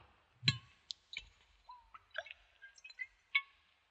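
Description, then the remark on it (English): Drinking water trickles into a tiny thimble-sized cup as one person's share, in a few small drips and splashes, with light clinks and rising plinks, quiet, nobody speaking. “Oh, a thimbleful. One thimble.”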